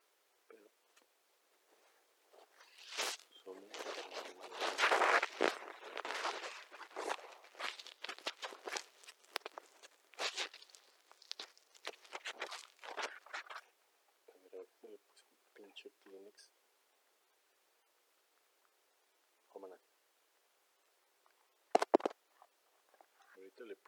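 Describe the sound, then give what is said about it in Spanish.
A Kleenex tissue, used as a noise reducer, rustles and crinkles right against the microphone, loud and crackly for about ten seconds, then thins to scattered rustles with a few brief bits of voice. “Como si fuera acá un reductor de ruido con Kleenex.”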